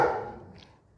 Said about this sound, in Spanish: disculpen los perros